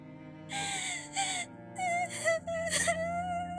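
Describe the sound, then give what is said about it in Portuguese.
A voice, apparently acting, wails and sobs like a crying girl in several drawn-out, quavering moans that rise and fall, fairly loud, with no words spoken. “O Tutu começou a chorar.”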